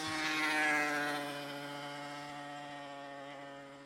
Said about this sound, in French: Il y a un garçon avec une grosse moto.